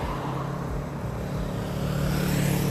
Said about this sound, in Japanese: あ電車も動いてますね